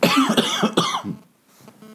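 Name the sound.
coughing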